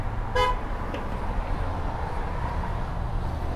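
A single short car horn toot sounds from outside, followed by a fainter blip, over a steady rumble of street noise. No one speaks.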